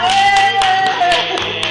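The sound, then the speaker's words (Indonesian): Hands clap at a steady, moderately quick pace, around seven sharp claps over under two seconds, with a faint sustained tone and murmuring voices underneath. “oh my god oh my oh god tepuk tangan dulu semuanya”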